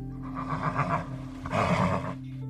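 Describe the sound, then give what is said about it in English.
A white horse whinnies twice in quick succession, each neigh a shaky, trembling call lasting under a second, set against a steady low musical drone and sounding somewhat distant. “In the distance, there is a beautiful white horse.”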